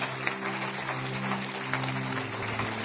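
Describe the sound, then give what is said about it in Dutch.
An audience applauds steadily, a dense, continuous patter of many hands clapping at an even loudness throughout, with a low steady hum running underneath. “Want to give them a round of applause.”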